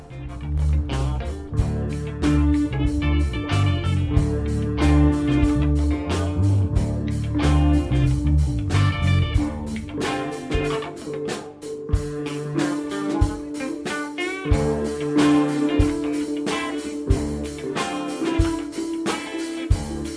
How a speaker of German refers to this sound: Und wir hören von einer Band, die … heißt, hören wir das Lied ….